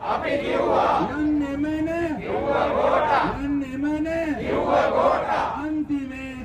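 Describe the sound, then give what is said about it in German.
A large crowd of protesters in Sri Lanka chants loudly in unison outdoors in the street, the day before the election of a new head of state, their voices rising and falling in a steady repeating rhythm, with shouting mixed into the sustained roar of many voices. “Auch gestern, also einen Tag vor der Wahl des neuen Staatsoberhaupts, da sind ja die Menschen wieder auf die Straße gegangen. Und du hast uns eine Aufnahme von dort mitgebracht.”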